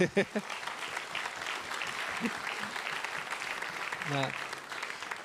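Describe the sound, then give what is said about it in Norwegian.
An audience at a meeting claps steadily throughout to welcome a guest, a dense wash of many hands, with a few brief voice fragments and calls rising at the start and near the end. “En applaus.”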